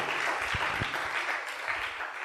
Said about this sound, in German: Und der Hammer ist, das ist mir jetzt, im September bin ich jetzt dann 22 Jahre bei dieser Firma, durchgängig. Ja, ist schon mal ein Applaus wert, genau.